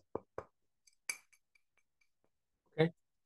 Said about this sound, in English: Y'all see this? This water bottle? Take it out the sleeve. Take it out the It's glass.